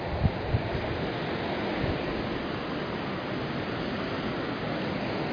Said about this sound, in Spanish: Eh, a ver si logras escuchar el mar sin que el viento interrumpa mucho.